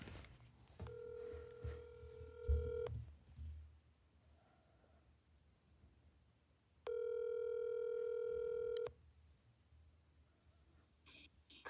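A phone call to a friend rings out twice: two steady, buzzy ringback tones, each about two seconds long, separated by a few seconds of quiet, with faint background rumble and no one speaking.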